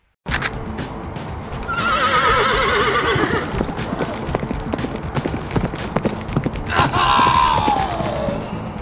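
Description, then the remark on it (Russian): A horse whinnies loudly twice, its high wavering neighs rising and falling, while hooves clip-clop steadily beneath, continuous throughout. “Где эта чертова лошадь?”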